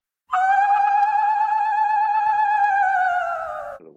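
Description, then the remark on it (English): An ululation: one loud, high vocal cry held for about three and a half seconds with a slight quavering wobble, sliding down a little before it breaks off abruptly, with no talking. “Oh, that was that was our word from last week. Ululation.”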